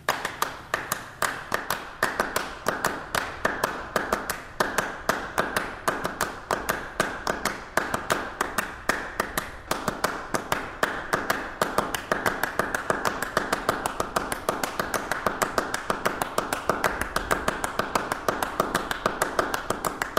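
Two people clap the same short rhythmic pattern, one slightly offset from the other, creating a dense, shifting web of sharp, bright claps that runs steadily without pause and with no talking.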